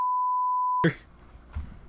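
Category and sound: sound effect, censorship bleep tone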